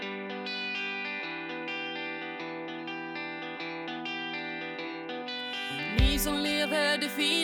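A Swedish punk rock song from a band's new album plays loudly with thick, distorted electric guitars holding steady chords, then a crashing burst near the end kicks the full band into a harder, noisier section.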